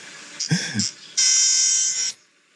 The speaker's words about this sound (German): Das war, ein, nee, das war ein Wüstengimpel ah, aus Europa. Natürlich. Das finde ich so witzig, hört sich an wie so eine Tröte.